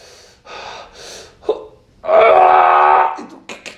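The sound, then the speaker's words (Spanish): A voice mimics a weightlifter straining while lifting a weight in a gym: a few short breathy huffs, then one loud, drawn-out grunting yell lasting about a second, ending in quick panting breaths. “¿Quién se está transformando en Saiyajin acá?”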